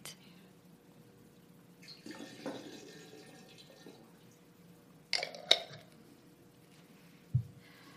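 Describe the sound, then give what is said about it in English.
Water is poured and splashes into a container for a few seconds during a ceremony in a church combining everyone's water, followed by a couple of sharp clinks and a soft low thump, fairly quiet. “I love the oneness of combining all the water, all the water, and uh, hearing all the stories.”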